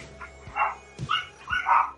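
A dog barks about three times in quick succession, short sharp barks evenly spaced, at moderate volume with no voices.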